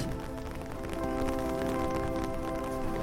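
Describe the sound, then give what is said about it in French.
Heavy tropical rain begins falling over a forest in Singapore as the wind rises, a dense hiss pattering on surfaces that thickens slightly partway through, with a faint humming drone running underneath. “Il va y avoir une énorme pluie tropicale qui va arriver et qui est beaucoup plus intense que ce qu'on peut connaître en France.”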